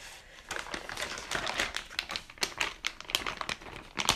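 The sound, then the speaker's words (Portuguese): Steady crinkling of a thin plastic bag, like a garbage bag, packaging a Twister board game, a dense stream of sharp crackles and rustles that swells and fades irregularly for several seconds, with no one speaking. “Então, este jogo que ah, não é cheira a plástico, é ouve-se a plástico, sabem? É um saco que parece um saco do lixo e é um, o jogo do Twister.”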